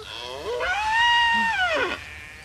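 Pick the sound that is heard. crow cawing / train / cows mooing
cows mooing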